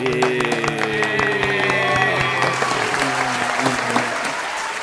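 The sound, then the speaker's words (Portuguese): An audience applauds steadily for writer Karen Florelli, a finalist for the Associação Gaúcha de Escritores prize, who is not present: a dense crackle of many hands clapping at a fairly loud level, with some held musical tones and murmuring voices underneath. “Ela não está aqui hoje, mas uma salva de palmas para dona é... Karen Florelli.”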